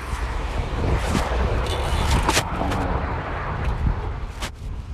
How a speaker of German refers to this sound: Der Wind bläst mir wirklich die ganze Zeit entgegen, hat man ja vielleicht gerade gehört.